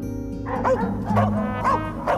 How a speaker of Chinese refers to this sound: 在宫殿外面的深院中，一只狼犬觉察到了什么，狂吠了几声，但它的叫声立刻被无边的黑暗吞没，它自己也在前所未有的恐惧中沉默了，缩到角落，不住地颤抖着，与黑暗融为一体。